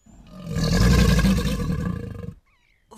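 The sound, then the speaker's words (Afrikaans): A single deep, rumbling crocodile growl swells up loudly, holds for about two seconds with a throaty, rattling texture, then cuts off abruptly into near silence. No voices. “Sy kyk versigtig rond en toe skielik hoor sy die gromstem van die krokodil agter haar.”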